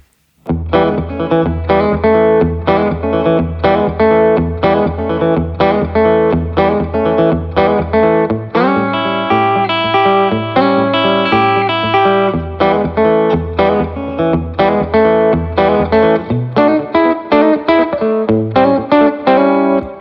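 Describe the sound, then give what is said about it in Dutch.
An electric guitar with Fender Custom Shop Nocaster-style pickups plays a continuous run of chords and riffs, loud and driven with effects and some distortion, with no talking over it. “Dit zijn eh, gewoon een no-caster pickups van Oh Fender. ja, Custom shop.”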